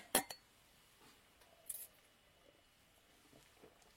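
Glasses clink together in the evening's first toast in a bar: two sharp, bright taps right at the start, then a softer ringing touch a moment later, with quiet background noise between and no talking.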